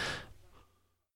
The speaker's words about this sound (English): It's gonna big ass yawn right when I'm talking, guy.